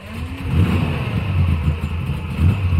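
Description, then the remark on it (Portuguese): A car engine revs up loudly, its low rumble rising and surging as the car pulls away with a woman driving, with no voices over it. “Tomara que essa mulher dirija com calma, sem problema nenhum.”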